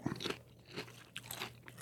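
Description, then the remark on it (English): Quiet, crisp crunching of tortilla chips with salsa, several irregular bites and chews in a short burst, over a faint low steady hum with no talking. “I could hammer a bag of chips and salsa, but Yeah, it's good. it's pretty good here.”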